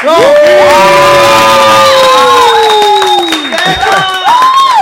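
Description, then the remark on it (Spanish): A loud crowd cheers and whoops for the band as they are introduced, with high sustained shouts rising and falling over a steady wash of clapping and noise for about five seconds. “Ahora sí, puñeta, fuerte el aplauso para …”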